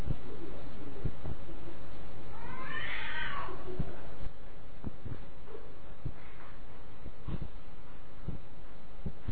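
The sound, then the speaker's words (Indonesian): A cat lets out a single drawn-out, wailing caterwaul about a second long, sounding almost like a person crying, over steady background noise with scattered faint clicks. “Orang nangis-nangis tadi malam di sebelah sana. Padahal suara kucing.”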